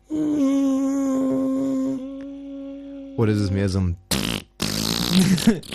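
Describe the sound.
A voice holds a steady, unwavering buzzy tone for about three seconds, mimicking the old test tone on a TV set, then breaks off into conversation.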